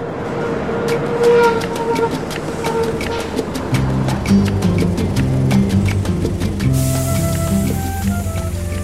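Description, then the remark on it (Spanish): A bus drives along a road during an eight-hour journey to Tambo Rojo, a town behind the central cordillera, with a steady, loud engine rumble that shifts pitch as it changes gear, plus scattered rattles and clicks from the moving vehicle. “Después de ocho horas de autobús, Doña Lucy y los otros vecinos llegaron a Tambo Rojo”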